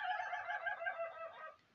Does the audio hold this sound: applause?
no